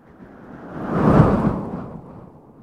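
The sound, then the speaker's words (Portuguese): A single gust of wind swells from quiet to a broad, rushing peak around the middle, then slowly fades away, a full whoosh with no voices. “Tentou com vento, mas o vento não tomava forma.”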